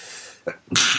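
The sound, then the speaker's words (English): A single loud sneeze: a brief sharp intake followed by an explosive, hissy burst of breath, with no talking around it. “Bless you.”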